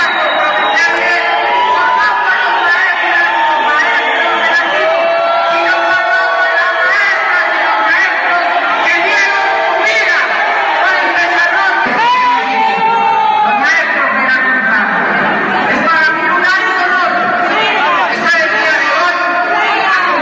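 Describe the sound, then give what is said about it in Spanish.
A large crowd of teachers in Veracruz boos politician Javier Duarte's Teacher's Day speech loudly and without pause, a dense wall of overlapping voices with individual jeers and shouts rising above it now and then, holding steady for about twenty seconds. “Es que si escuchamos el discurso completo, Javier Duarte empezó muy bien y poco a poco empezaron los bu, uh, Entonces, si escucharon ustedes, poco a poco iba subiendo la voz porque ya la gente no estaba escuchando lo que estaba diciendo.”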